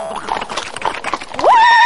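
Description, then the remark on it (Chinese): A horse neighing sound effect for an ancient swordsman riding a horse up to a restaurant door: a loud, high whinny rises sharply and holds steady at the end, following a second or so of rhythmic clattering like hoofbeats. “反正我觉着是应该这样式儿一个大侠，咵咵咵骑大马，他挎羊刀啥的到饭店门口了，”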